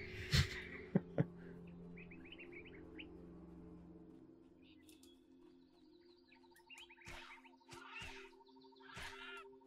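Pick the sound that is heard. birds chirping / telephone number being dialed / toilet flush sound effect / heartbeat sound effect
birds chirping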